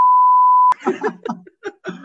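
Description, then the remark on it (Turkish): A steady, loud censorship bleep tone holds for about three quarters of a second, then cuts off abruptly into lively voices and what sounds like laughter. “Direkt sadece BIP olsun abi.”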